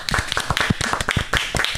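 Hands clapping in applause, a small group producing brisk, overlapping claps that carry on steadily and fairly loudly from start to finish, close by, with no one talking.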